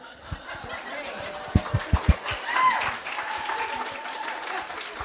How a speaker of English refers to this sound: I know you're clapping for yourself, right?